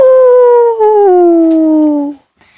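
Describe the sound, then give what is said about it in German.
A single loud wolf howl rings out, a long sustained cry that slowly slides downward in pitch for about two seconds before cutting off, followed by a faint brief sound. “Was sagt ein Wolf, wenn er ein Geschenk bekommt?”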